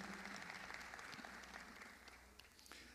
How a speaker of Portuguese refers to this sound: Eu pediria que eles se colocassem em pé, talvez nem todos tivessem, tiveram a oportunidade de estar no seminário, os casais, mas uma salva de palmas ao Senhor Jesus pela vida do pastor Marcílio.